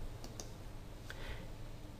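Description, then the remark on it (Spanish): A few soft, quick clicks of computer keyboard keys being pressed, including the Delete key to erase a shape in an animation frame, spaced irregularly over a quiet background hum, with no voices. “Elimino la forma que hay en ese fotograma con la herramienta pulsando la tecla suprimir en el teclado.”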